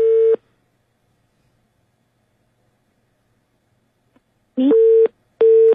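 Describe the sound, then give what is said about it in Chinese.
A phone line gives short, steady busy-signal beeps as a company's number is dialed, one at the start and two more after a long silence, with a brief dialing blip just before the final pair. No voices. “好了，继续拨打，同时给他们公司打电话。”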